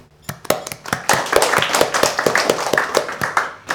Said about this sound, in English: Um, so, as we go through each person individually, if we give them a round of applause to say thank you.